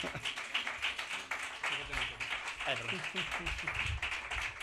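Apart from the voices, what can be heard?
small audience applause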